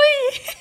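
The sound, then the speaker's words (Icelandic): A voice gives one short, high-pitched squeak in imitation of a rat, fairly loud, followed immediately by a quick breathy laugh. “já, róttu hljóð er svona eins og svona músa hljóð svona úi”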